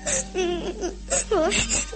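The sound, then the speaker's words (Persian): A child crying and sobbing in wavering, high-pitched wails that rise and fall in several short bursts, fairly loud and continuous, with a low steady hum beneath; the young Pyotr Tchaikovsky crying one night, found by his nurse. “یک شب پرستارش او را در حال گریه دید”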